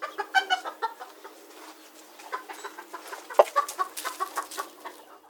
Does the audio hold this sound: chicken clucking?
yes